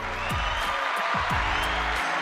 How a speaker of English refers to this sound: Sorry, I had to give the applause to us, man.